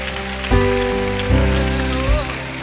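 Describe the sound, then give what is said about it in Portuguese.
A church audience claps steadily, applauding the name of Jesus, in a dense, rain-like patter over sustained organ or keyboard chords, with a few stronger thumps roughly every second. “Se você crê, diga amém, diga glória a Deus e aplauda o nome de Jesus bem forte aí.”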